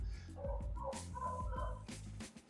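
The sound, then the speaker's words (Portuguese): A dog barks several times in quick, uneven bursts, sounding somewhat muffled, with no one talking. “Eu estava aqui com o microfone fechado porque o cachorro começou a latir.”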